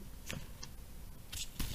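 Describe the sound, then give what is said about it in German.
Soft rustles of thin washi, traditional Japanese paper, as an envelope is handled, a few brief crinkling bursts separated by quiet pauses, with no one speaking. “das ist, glaube ich, ein Futo, also ein Kuvert, ein Umschlag.”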